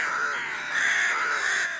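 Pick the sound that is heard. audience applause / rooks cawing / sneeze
rooks cawing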